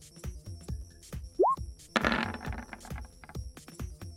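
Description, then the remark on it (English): Dice rolled for an attack in a game rattle and clatter across a hard surface in a quick run of sharp clicks, with a brief squeak partway through and a louder knock as the other die strikes one showing a 20. “Okay, that was 100% on the dice, a 20, and then the other die just slapped it.”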